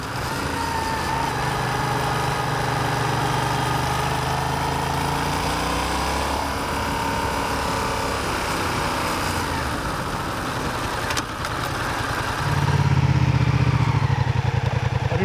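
A motorcycle engine runs steadily, a continuous buzzing drone held at low revs on the clutch without giving throttle, with a brief dip before it swells louder near the end. No one speaks.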